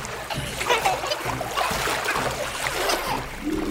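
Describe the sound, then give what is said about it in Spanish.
Water sloshes and splashes steadily for a few seconds, moderately loud, with a churning, agitated texture as a hand shakes and moves a bag holding axolotls about in the water until they come out of it. “La mano logró abrir la bolsa y la movió de tal manera que los ajolotes salieron de ella y estuvieron a salvo.”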